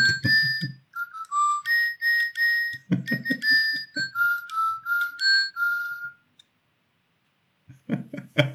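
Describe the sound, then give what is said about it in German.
A pet bird named Johnny whistles a series of clear, high tonal notes and short melodic phrases, some rising and falling, mixed with clicks and chirps, then pauses briefly before a few more chirps. “Er hat den Schnabel aufgemacht.”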